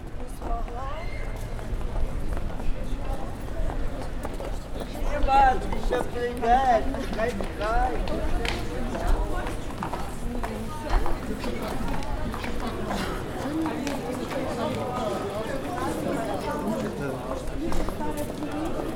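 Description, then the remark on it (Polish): A steady patter of high heels clicking on a cobblestone street in Lviv, Ukraine, mixes with the murmur of a busy crowd, many quick footsteps overlapping, with voices chatting throughout. “które bardzo wyraźnie słyszałem i to było wyraźnie odmienne niż to, co mogę usłyszeć we Wrocławiu, na rynku czy w okolicy, mimo że też mamy bruk, ale nie ma na pewno tylu szpilek, przynajmniej tak jak wtedy, a było to kilka lat temu, słyszałem Lwów.”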